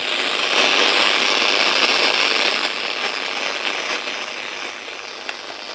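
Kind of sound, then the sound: machine, FM radio static hiss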